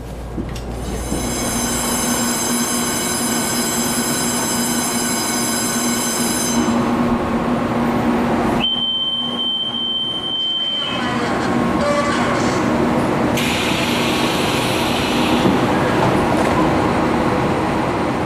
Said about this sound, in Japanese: 各駅停車はもうすぐ大安駅を出発します。各駅停車で台湾中部台安駅に行ってまいりました。